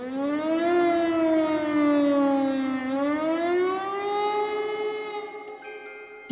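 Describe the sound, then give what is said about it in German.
A Berlin air-raid siren, set off by pressing a button, wails steadily and loudly for several seconds, its pitch rising, dipping, then climbing again in a long, mournful sweep, with no voices present. “dann mussten wir die Berliner Sirene drücken.”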